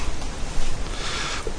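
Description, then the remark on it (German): A forceful sniff drawn in through the nose, a single rushing, hissy intake of air that swells briefly then fades, with no talking over it. “Wenn du fest durch die Nase einatmest, dann hast du nämlich genau das.”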